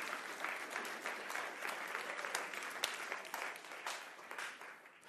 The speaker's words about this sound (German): Ja, ja, das ist ein Applaus wert. Absolut.